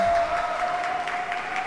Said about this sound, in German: Und da wird sich hart gegenseitig angefeuert.